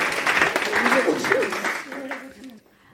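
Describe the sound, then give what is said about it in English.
A small group claps steadily for a couple of seconds for someone who raised the water level in a tube with stones to take a ball out, the patter thinning and fading out toward the end, while a voice talks over the applause. “Well done, you managed it. Round of applause.”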